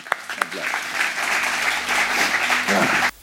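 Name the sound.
audience applauding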